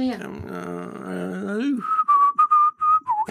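A person whistles a short tune, starting with a hummed or voiced wavering tone, then a run of clear, high whistled notes in quick, separate bursts.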